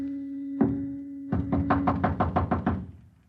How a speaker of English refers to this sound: What's that sound? Somebody's coming up the stairs. Listen.